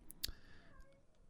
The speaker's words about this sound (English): our kitty's meowing. Is that what it is? Yeah. Oh, you know why? Because it's almost dinner time for them.